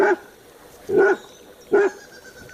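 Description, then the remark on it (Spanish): A dog barks four times in a steady, evenly spaced rhythm, each bark short and loud, with quiet pauses between and no voices. “Levantando penosamente la pata herida, las fauces abiertas y los labios desplegados hacia afuera, gruñó al perro. Pero éste no cesaba de ladrar.”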